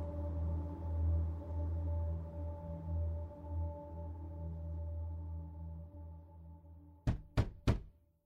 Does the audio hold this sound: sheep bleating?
no